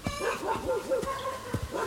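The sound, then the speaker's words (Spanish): A dog barks repeatedly in short, sharp bursts at an irregular pace, fairly loud, with some higher whiny yips between the barks. “Perro, quítate de ahí.”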